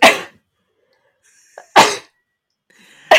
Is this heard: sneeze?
yes